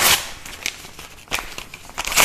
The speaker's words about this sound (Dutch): Ik gooi wat werkjes weg van mijn, van mijn kleine in de papierbak.